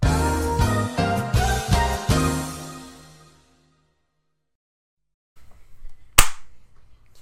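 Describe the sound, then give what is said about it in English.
A single sharp hand clap cracks out over a low hum, following a stretch of silence after a few seconds of tonal, musical sound fade away. “I'm clapping now so you can cut it and then line that back okay, up.”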